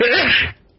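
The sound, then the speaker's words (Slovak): A single sharp, loud sneeze bursting out for about half a second before dropping away into quiet. “No, na zdravie.”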